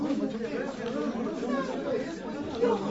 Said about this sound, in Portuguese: E começaram a gritar, a falar, todos ao mesmo tempo.